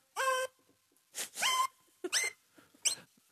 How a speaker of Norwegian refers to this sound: Lyd er jo som kjent vibrasjoner, og jo flere vibrasjoner det er, jo lysere er tonen. Jo færre vibrasjoner det er, jo mørkere er tonen. Eh, så derfor kan jeg da ha denne fisen over hele eh, keyboardet her.